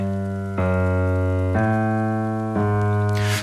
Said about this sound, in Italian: Nel secondo movimento la costruzione è basata su un movimento cromatico dei bassi, cioè sono tutti semitoni, molto lenti. sto suonando la parte di violoncelli e contrabbassi. Sono tutti semitoni.